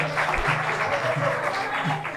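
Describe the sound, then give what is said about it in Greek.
Steady, dense clapping from an audience welcoming a team's press spokesman holds at an even level for a couple of seconds, with low voices murmuring underneath. “Και χειροκροτάτε ρε, δεν πήγε κανένας ασήμαντος ρε.”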